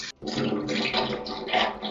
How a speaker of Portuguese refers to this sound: Quem tá mijando no negócio de metal? Ninguém, eu tô pegando água, só isso.